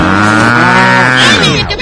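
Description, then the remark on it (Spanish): A single long, loud cow moo, sustained for nearly two seconds, rich and droning with a slight rise in pitch before it trails off. “La vaca trivi, la vaca trivi, tiene cabeza y huella. Y hace...”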